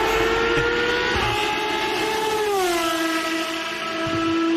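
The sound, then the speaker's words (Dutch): The high-pitched 750-horsepower V12 engine of a 1993 Ferrari Formula 1 car screams loudly and steadily, its harmonic whine dipping slightly in pitch partway through as if shifting or passing, with no talking. “Dit is gewoon een echte ouderwetse V12.”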